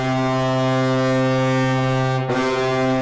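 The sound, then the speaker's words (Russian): A massive signal horn of the type used on American aircraft carriers, installed by the Colorado hockey club, blares in one continuous, deep, droning blast rich in harmonics, loud, with a brief stutter near the end before it sounds on steadily. “А больше остальных отличился Колорадо, клуб смонтировал сигнальное устройство, которое используется на американских авианосцах.”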